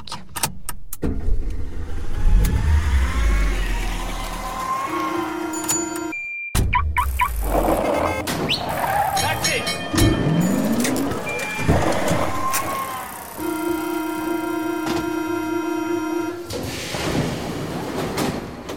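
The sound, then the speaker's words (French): An opening theme jingle built from layered transport sounds, with car engines, a sliding door and train-like rumbling, punctuated by sustained horn-like tones, loud and continuous with no one speaking. “quel merveilleux générique, hein, je l'adore, j'adore l'écouter à chaque fois.”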